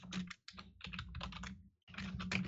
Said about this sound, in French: Tu peux-tu te mettre sur ne pas déranger sur ton Skype? On n'entendra pas ton clavier. Euh, ouais, ça va là. Les joies du ah, clavier. les, joies, les joies des claviers mécaniques.